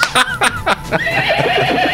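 A horse neighs loudly, a few sharp bursts leading into a long, shaky whinny that trails off, with no one talking.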